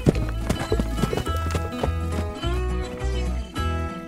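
A horse's hooves clip-clop in a steady, regular rhythm at a moderate pace as it is ridden on a long walk through a forest, clear, with soft sustained music playing underneath throughout.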